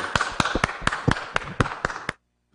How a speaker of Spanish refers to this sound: El aplauso para él.